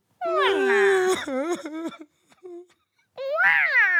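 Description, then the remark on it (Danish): Someone crying over by a ship in loud, high wailing sobs, a long quavering burst that breaks into short gasps, then a pause before another rising wail, with no talking. “Tror du, det er nogen, som at der græder?”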